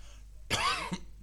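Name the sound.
cough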